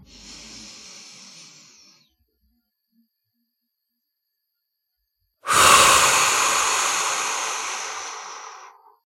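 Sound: deliberate breathing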